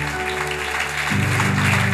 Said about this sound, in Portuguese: Aplauda Jesus por isso.